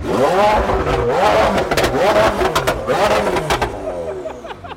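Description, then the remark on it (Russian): A Mercedes G-Class engine is started and revs loudly, its pitch climbing and falling in several repeated surges, with a steady rumbling idle underneath between the pushes of the throttle. “А почему ты гелик выбрал?”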